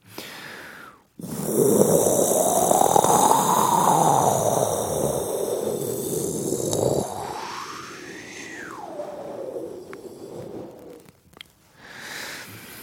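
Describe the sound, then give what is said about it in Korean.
Someone blows air out in long, breathy puffs, blowing as if to help get an eyelash out of a listener's eye: a loud sustained gust, then a second blow with a faint whistling rise and fall, and a short final puff. No one speaks. “눈에 속눈썹이 들어갔는데 인공 눈물을 넣어도 안 빠져서 죽을 것 같아요. 호호 한 번만 해주세요.”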